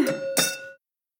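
wine glasses clinking

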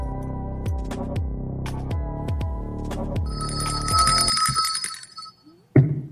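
phone ringing

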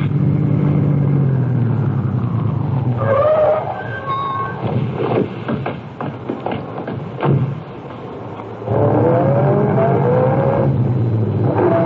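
car engine driving off

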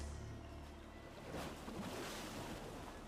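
ocean waves

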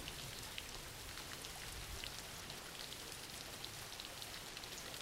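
rain falling

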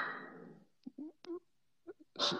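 dog barking

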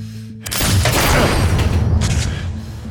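gunshot

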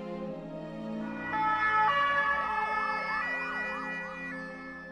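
ambulance siren

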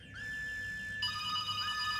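phone ringing

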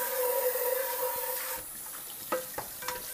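tap water running

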